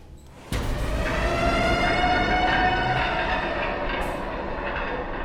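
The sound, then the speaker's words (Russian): A loud, sustained siren abruptly switches on outside a window and holds a steady, slightly falling wail over heavy rumbling noise, continuing without pause for several seconds, while a steel shutter begins to lower slowly. “За окном завыла сирена, и стальная створка начала медленно опускаться.”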